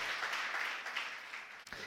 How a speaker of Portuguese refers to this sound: Você pode aplaudir o Senhor? Glória a Deus!